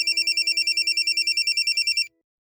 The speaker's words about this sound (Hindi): आधे घंटे तक दोनों के बीच कोई बात नहीं हुई कि तभी शनाया का फोन बजा